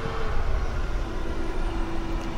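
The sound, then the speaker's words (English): A garbage truck rumbles past outside on a Monday morning, a steady low engine drone with a faint sustained whine, moderately loud and continuous for the whole stretch with no voices. “Monday morning, you'll be able to hear the garbage truck going by there.”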